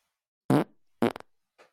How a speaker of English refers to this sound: Oh, yeah. So that, that sounded great. That was, a, that was, a, fart?